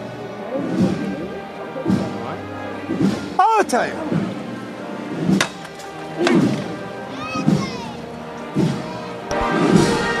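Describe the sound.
A heavy Holy Week (Semana Santa) procession float of the Virgen de la Paz, with a petal-covered canopy, is lifted by its bearers in a 'levantada', landing a single dull thud just past the first few seconds, with voices talking and calling around it throughout.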